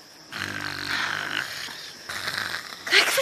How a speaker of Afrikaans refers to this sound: Daar's dit weer. Sy glimlag. Sy lê en snork met 'n smile op haar gesig. Hoe op aarde kan sy nog slaap?